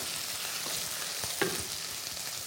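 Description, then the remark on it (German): A steady hiss of sizzling in a pan with soft scraping and a few clinks as tomato paste and water are stirred together, moderately quiet, with no talking. “Okay, jetzt versuch mal umzurühren. Ich rühre mal um.”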